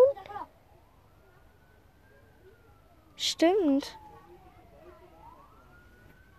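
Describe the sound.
An emergency vehicle siren wails faintly throughout, its pitch slowly rising and falling, while a person speaks briefly at the start and again midway.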